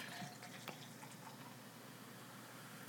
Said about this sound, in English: Uh, anyways, I'm gonna I might pour pour me another drink. Got Redd's Wicked Apple Ale